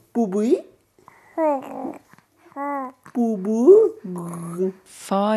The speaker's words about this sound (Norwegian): barn allerede i gang med å utforske lyder, som etter hvert kan formes til ordene far og mor, eller pappa og mamma.